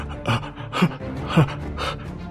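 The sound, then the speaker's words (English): A voice imitates someone gasping for air: four ragged, breathy gasps in quick succession, moderately loud, with no words spoken. “and he is gasping for air trying”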